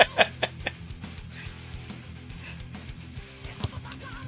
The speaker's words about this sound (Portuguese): gente, que tá o louro gritando aqui.